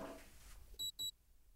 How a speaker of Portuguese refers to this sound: Tá calor, né? Vou ligar o ar-condicionado, peraí.